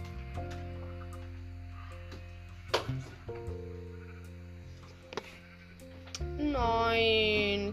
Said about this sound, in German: Ah, ich komme nicht mehr raus. Die Schafe drücken mich zusammen. Hilfe! Ah, Schafe, bitte!